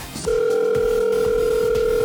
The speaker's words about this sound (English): Someone is calling.